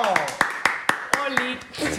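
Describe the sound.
Applause made of steady, evenly spaced sharp claps, about four per second, with voices sounding beneath and swelling toward the end.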